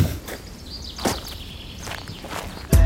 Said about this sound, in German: Lass noch ein paar Schritte gehen.